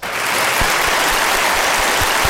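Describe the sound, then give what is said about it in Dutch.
An audience applauds steadily, a dense wash of many hands clapping at an even level for the whole stretch, with no voices on top. “Mag een applaus alsjeblieft.”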